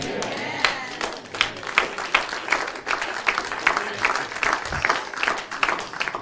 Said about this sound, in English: If you only knew how weak that clap was. It sounded like a bunch of fourth graders.